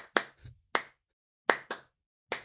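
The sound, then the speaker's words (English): Sharp hand claps standing in for a jingle introducing the Semi Pertinent News segment, in an uneven rhythm, about six crisp, loud bursts with short pauses between them, and no voices present. “But I got claps all night long, oh, yeah.”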